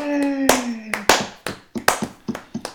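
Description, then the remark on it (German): A short burst of hand clapping, about a dozen sharp, uneven claps, opens with a brief sustained vocal shout beneath the first claps. “Und ich glaube, das verdient jetzt mal einen Applaus.”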